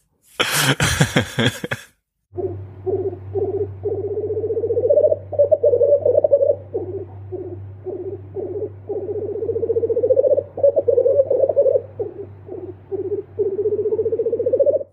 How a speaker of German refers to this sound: Also, ja, das falls das klappt, dann so klingt das Birkhuhn.